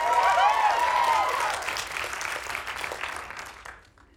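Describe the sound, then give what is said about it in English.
A large audience at an awards ceremony claps steadily and fairly loudly, with a brief whoop near the start, as the nominees for Achievement in Directing are announced, before the applause tapers off and fades out at the end. “Now, the reason people are clapping, obviously, this is good work by both Greta Gerwig and Jordan Peele, but this was a part of the surprise nominees in these categories.”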